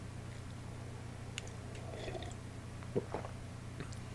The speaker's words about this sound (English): Uh, now, I have to get a sip of coffee real quick. Hold on.